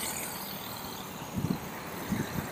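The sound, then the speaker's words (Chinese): Cars and motorcycles passing by on the recordist's left side, where the microphone is, in a steady traffic roar with a broad hiss, low engine rumble underneath, and a couple of brief low bumps near the end. No one speaks. “然后你们听的，然后麦克风也正好在左边，所以你们能感觉到那些汽车、摩托”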